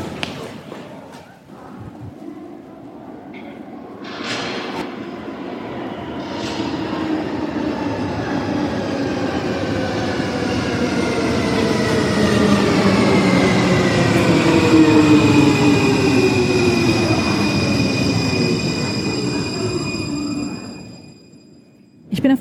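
A Munich U-Bahn subway train pulls into a station: a steady loud rumble builds as layered whining tones slide slowly downward in pitch while it brakes, ending in a brief hiss. A few thuds come early on.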